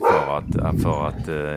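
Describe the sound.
A dog barks three times in quick succession, loud and close, overlapping a person who is talking.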